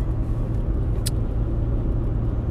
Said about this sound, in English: Car gone. Car gone. That's all we're gonna hear now. on a motorway, so yeah, there's going to be a few of them.